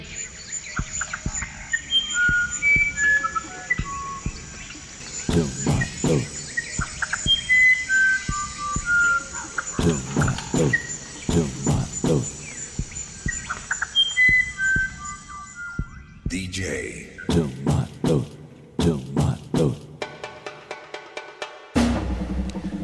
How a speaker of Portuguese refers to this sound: o Irapuru.